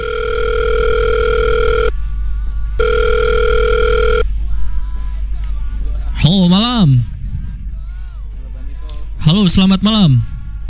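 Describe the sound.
A telephone connecting tone sounds twice as a radio studio calls a band from Tangerang Selatan: two long steady electronic beeps separated by a short pause, followed by line hiss and a couple of brief warbling voices.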